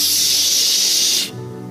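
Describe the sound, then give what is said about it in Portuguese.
A voice imitates a snake's hiss, one sustained, loud, breathy sss lasting just over a second before cutting off abruptly into quiet room tone. “é a própria serpente. Quem tem espírito profético vê até a cobrinha no olho das pessoas assim, ó.”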